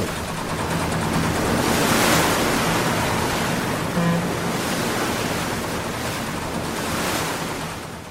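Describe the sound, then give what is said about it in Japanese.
Ocean waves wash steadily around a ship at sea nearing Yakushima, a continuous rushing hiss that swells louder in slow surges, with a faint low hum underneath and no voices. “逃げるってここ船ですよ”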